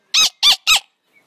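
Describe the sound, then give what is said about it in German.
A person imitates a monkey with three quick, shrill, squeaky calls in an even rhythm, loud and high-pitched, followed by a moment of near silence. “Du musst so tun wie ein Affe.”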